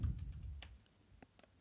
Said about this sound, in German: Während wir tippen